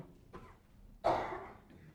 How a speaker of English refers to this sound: We'll all cough in harmony at one point. That's how you have unity of the Spirit in the house of God this time of year as the allergies rise and the dust.